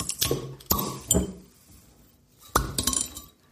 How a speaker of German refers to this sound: Okay, diesmal hatte ich die Ladehemmung. Prost! Meine hat auch nicht so schön geploppt.